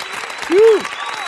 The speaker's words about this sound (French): Et on applaudit. Voilà, ouais.